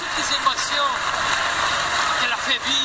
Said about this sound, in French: Mais Trish Stratus est applaudi par euh, l'univers de la WWE. Et la foule scande son nom.